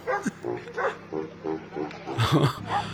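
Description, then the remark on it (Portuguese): A baritone horn plays a steady tune while a dog barks along in short, rhythmic yelps on the offbeats, the barks repeating roughly every half second and rising louder near the end. “O cara vai tocando barítono e o cachorro vai acompanhando do, no fundo, no contratempo.”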